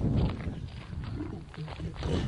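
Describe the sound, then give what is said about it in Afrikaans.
A 140 kg lion being petted gives a deep, rumbling vocalization, a continuous low growl that swells at the start and again near the end, with no one speaking over it. “Ek bedoel hierdie leeu weeg wat 140 kg al.”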